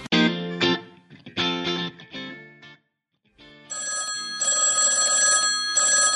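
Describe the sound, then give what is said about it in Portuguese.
A telephone rings loudly during a recording with no one talking: a few bright tonal bursts, a brief pause, then a sustained, shrill electronic trill that repeats in pulses. “Telefone no meio da gravação?”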